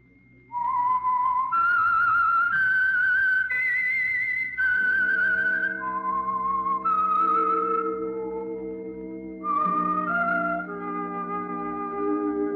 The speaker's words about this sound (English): That whistle is your signal for the Signal Oil program, The Whistler.